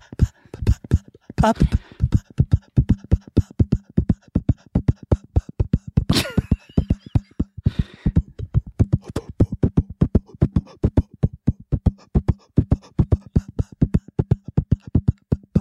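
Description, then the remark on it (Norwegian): The jingle for the Pophjørnet segment plays on its own: a fast, steady run of sharp percussive hits over a sustained low tone, loud, with a few brighter swells along the way. “Kjør jingle, da,”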